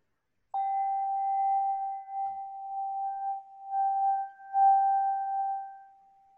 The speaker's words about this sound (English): You need clear sounds. Let me play this bowl again for you, shall I?